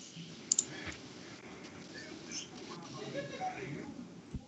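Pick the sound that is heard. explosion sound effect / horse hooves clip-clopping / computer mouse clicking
computer mouse clicking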